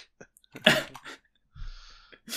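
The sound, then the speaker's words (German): A voice imitates a sneeze with a sharp, breathy burst, followed by a short, lower exhaled rasp and another quick burst at the end, moderately loud. “Sehr geehrter Herr Nies, Hatschi.”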